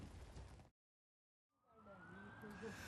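An ambulance siren wails through city traffic in Ankara, its rising and falling tone steady over a rumble of street noise, following a brief stretch of silence.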